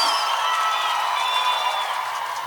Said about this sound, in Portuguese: Aplausos.